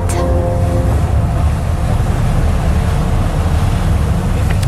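Steady roar of sea waves and gusting wind on the island of Saint in Finistère, loud and continuous with a low rumbling surge, plus a brief tonal hum at the start.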